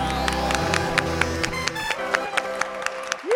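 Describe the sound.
A group claps together in a loose, scattered burst of applause, individual claps sharp and fairly close, with a low murmur underneath and a rising voice-like sound at the very end.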